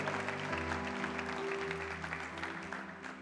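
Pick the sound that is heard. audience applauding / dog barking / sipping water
audience applauding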